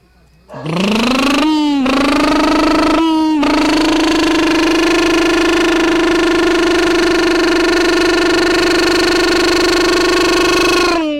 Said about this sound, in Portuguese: Ouve só o som do motor dessa moto.